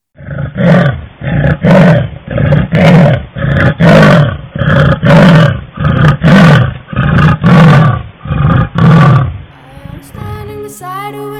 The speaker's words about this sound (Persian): قرش کوتاه پلنگی رو بشنوین که گروه چکاد ساری از محل دوربین های تعبیه شده در ارتفاعات مازندران ثبت کردند